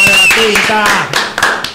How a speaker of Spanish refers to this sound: El aplauso, el aplauso en cabina, el aplauso en cabina